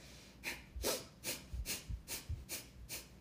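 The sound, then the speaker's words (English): Rapid, forceful breath-of-fire breathwork, an energizing exercise inhaling and exhaling through the nose at a one-to-one count: about eight quick, sharp huffs at a steady, fast rhythm, with no talking. “like an energizing breath work, like a breath of fire breath work where you know you're it's a rapid breath uh, count of one to one inhale through the nose you know like you're inhaling and exhaling through the nose and it kind of sounds like this”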